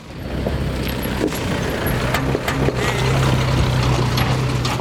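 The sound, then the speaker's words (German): A rattly small van with an open cargo bed built up with old wooden slats drives over hills of residual waste at a rubbish dump. Its engine drones low and steady while loose metal parts clatter and bang irregularly as it bumps over uneven ground, with sharp knocks and scraping throughout. “Ein klappriger Kleintransporter fährt über eine Hügellandschaft aus Restmüll.”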